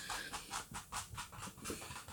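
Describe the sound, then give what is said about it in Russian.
A dog pants rapidly and steadily, a run of quick, breathy huffs in an even rhythm with no talking over it. “Э, моя собака тут пришла порассуждать с нами про работу.”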